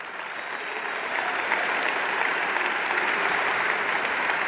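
An audience applauds an agreement among left-wing parties in Portugal: a dense wash of many hands clapping that swells slightly after the first second and holds at a strong, even level without any voices.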